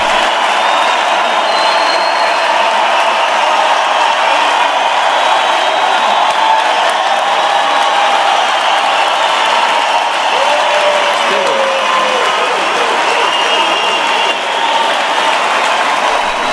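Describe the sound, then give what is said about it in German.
Sustained, dense applause from a large audience after a woman answers "yes, I will", steady and loud, with a few cheers and whoops mixed into the clapping, slowly dying down. “Als nach einiger Zeit der Beifall langsam abebbt,”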